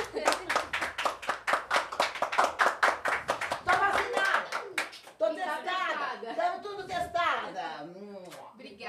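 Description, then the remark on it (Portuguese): Steady hand clapping while standing, in a quick even rhythm for about five seconds, followed by people talking and laughing. “queria te aplaudir em pé, porque foi incrível o que você fez hoje aqui.”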